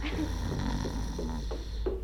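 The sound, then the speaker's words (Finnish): Deep, slow breathing turns rough and rattly, settling into soft snoring over a few repeated breaths, with a steady background hum and no talking. “Ensin hänen kummaltakin puoleltaan alkaa kuulua syvää hengitystä, joka vähitellen saa joukkoonsa kuorsauksen virittelyä.”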